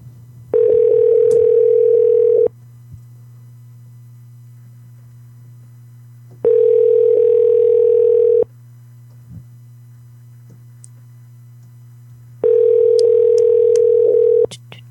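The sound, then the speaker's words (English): A telephone ringing tone repeats three times, each steady mid-pitched buzz lasting about two seconds with roughly four seconds of quiet between, over a constant low electrical hum. “She's going to call this number and then I'll, uh, or one of us is going to call your number next.”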